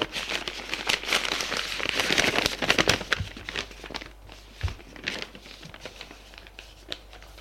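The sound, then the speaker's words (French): Crisp paper crinkling and tearing as a letter's envelope is opened, a dense burst of rustles that thins into scattered soft crackles and a few taps. “Elle ouvre la lettre de Carole, la lit, est surprise, en colère”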